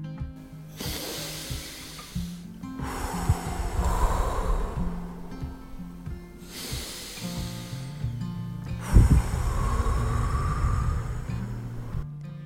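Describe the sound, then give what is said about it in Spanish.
Slow, deep diaphragmatic breathing in a relaxation exercise: two full cycles of long, airy inhales followed by steady, hissing exhales, with no talking and a low background hum underneath. “Y esa forma de respirar se llama respiración diafragmática.”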